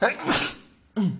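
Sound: sneeze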